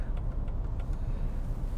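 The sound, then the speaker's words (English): A steady, low car engine rumble fills the space, a constant drone from inside a vehicle in traffic with a few faint clicks above it. No one speaks. “I'm stuck in traffic, so you know how that goes.”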